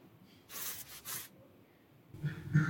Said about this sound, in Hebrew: השמיע לכם את הקולות של הזקן שלו. איך? עם היד? למיקרופון.